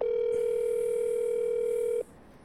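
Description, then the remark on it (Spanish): A steady, loud telephone ringback tone of a call to the personal phone of minister Karen Abudinem holds for about two seconds, a single continuous pitched beep with faint harmonics, then cuts off abruptly, leaving quiet background hiss. “Es el teléfono personal de la ministra Karen Abudinem”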